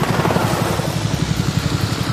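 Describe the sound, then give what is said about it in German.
Loud, steady rotor thumping of several helicopters flying overhead above a cornfield, a fast rhythmic low beat over a broad engine roar, continuous throughout with no voices. “Plötzlich donnern mehrere Hubschrauber mit lärmenden Rotoren über ihn hinweg.”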